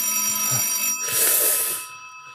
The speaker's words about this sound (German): Oh nein, aggressives Klingeln. Das muss Frau Sparbrot sein.